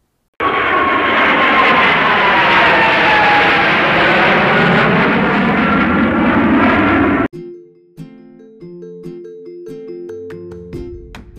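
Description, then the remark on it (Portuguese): A loud airplane on a flight to Reggio Emilia roars steadily for several seconds, its engine tone sweeping gently in pitch, then cuts off abruptly, giving way to a soft melodic tune of electronic notes. “ganhou um presente para viver mais um intercâmbio de experiência, dessa vez um voo mais alto e mais longo, a caminho de Reggio Emília.”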